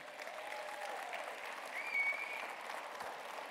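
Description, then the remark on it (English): A church crowd applauds its leaders steadily, a dense wash of clapping with a brief whistle or cheer rising near the middle, sustained for several seconds at a fairly even level. “I would like if y'all give our leaders that we do have that pour into y'all students a praise because they do an incredible job for them.”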